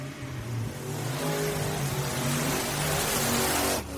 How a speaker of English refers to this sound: The man in the Jeep then proceeds to push his gas pedal to the floor as he charges onto the sand.